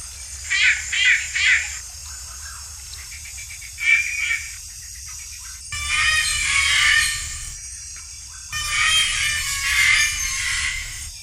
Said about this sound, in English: cockatoo is a parrot. It's one of 21 species of cockatoos. They're found mainly in Australia, Philippines, New Guinea, and the Solomon Islands. They're noted for their snowy crest on top of their head and also their curved bills.